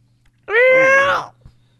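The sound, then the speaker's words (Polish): A single voice imitates a creaking door with one drawn-out, whiny tone lasting under a second. It rises quickly in pitch, holds steady and loud, then trails off, sounding more like a wail than a creak. “Nie, no ja zrobiłem ten odgłos drzwi źle.”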